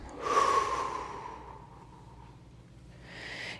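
A single long, breathy exhalation rushes out strongly, then tapers off over about a second; a softer airy breath follows near the end, with no talking. It is an exhale after an inhale in a guided breathing exercise repeated three or four times.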